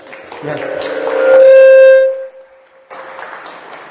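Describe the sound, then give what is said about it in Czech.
Steady audience applause for a lecturer before his lecture, with a loud, sustained humming tone rising over it midway, then a brief lull before the clapping picks up again. “Eh, já děkuji za potlesk.”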